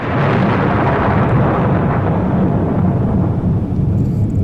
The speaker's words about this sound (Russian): Да, здесь взрывы. Я, я помню, здесь я... Атомная война как-то присутствует в этом мультфильме.